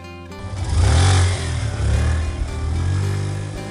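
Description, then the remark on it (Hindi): A motorcycle engine revs up loudly, swelling to a throaty roar, easing slightly, then surging again in a steady growl, with no voices present. “college में bike भगाते हुए अपनी लंबी जुल्फों में हाथ हमने भी घुमाया है”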